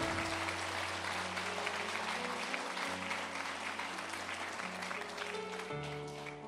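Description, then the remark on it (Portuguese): Steady applause to the Lord fills the whole stretch, a dense crackling wash of many hands clapping at once, while sustained keyboard chords hold and shift underneath. “Aplauda ao Senhor por essa mulher.”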